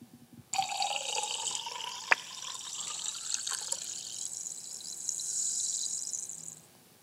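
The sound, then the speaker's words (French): A sparkling drink (champagne, prosecco or club soda) pours from a bottle in a steady six-second stream, with bright, crackling carbonation hiss on top and one sharp tap early on; no one speaks. “La même bouteille, la même vitesse et le son différent.”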